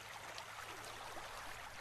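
A steady, continuous rush of flowing river water, soft and even throughout with no voices, like a stream running at a constant low level.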